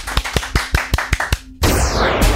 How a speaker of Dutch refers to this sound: Eh, en dat was haar allereerst gesproken column ooit. En dat is even wennen. Applaus!